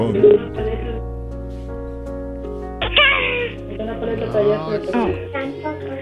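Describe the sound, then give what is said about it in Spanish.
A child's voice imitates a cat's meow, a short rising-and-falling vocal cry, with an adult speaking around it over a steady low background tone. “¿puedes hacer el ruido de un gatito? ¿Ruido de un gatito? Miau.”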